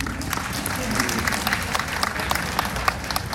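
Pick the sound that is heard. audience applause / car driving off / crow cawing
audience applause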